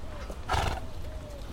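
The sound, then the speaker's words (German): A donkey on a pasture lets out a short, harsh bray, a rough burst of braying in the middle with thinner whining tones before and after, heard outdoors over a low rumble. “Eine besonders lange Wanderung hat diese Eselin hinter sich, die mit Sir Henry auf der Weide steht”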